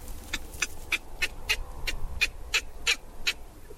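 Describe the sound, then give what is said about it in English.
A baby baboon in a troop cries to nurse in a rapid series of about a dozen short, shrill squeaks, evenly spaced, over a low background rumble. “As you hear the baby go like, the baby wants to have breastfeeding.”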